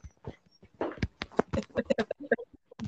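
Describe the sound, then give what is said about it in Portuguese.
A dog at the door gives a rapid series of short, sharp yelps and whines, about a dozen quick bursts in an uneven rhythm, fairly loud. “Peraí, que eu vou abrir para um cachorro que tá.”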